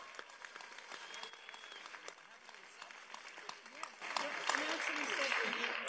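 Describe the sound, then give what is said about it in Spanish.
A crowd at a scholarship presentation applauds the latest scholarship winner with steady, dense clapping that swells louder in the last couple of seconds, with faint voices mixed in underneath. “Déjenos, déjenos decirle un aplauso.”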